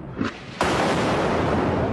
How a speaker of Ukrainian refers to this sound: походу, прилетіло.